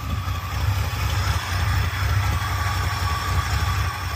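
An Oldsmobile 455 Rocket V8 engine runs steadily at idle, its deep, throbbing rumble loud throughout, with a faint pulsing beat and no voices.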